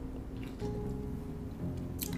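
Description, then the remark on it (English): A brief, wet slurp of a sip of spritz, fairly quiet, with a couple of small squishy mouth sounds before it and low background rumble throughout. “I don't, know, I don't know if you heard that slurp.”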